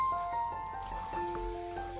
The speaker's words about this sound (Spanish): Procedió a pararse y meterse en la ducha. Abrió el grifo